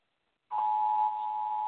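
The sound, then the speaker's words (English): An Amber alert tone blares from a cell phone, starting abruptly and holding as one loud, steady, buzzy electronic drone with no speech. “Amber uh, Amber alert on my cell phone.”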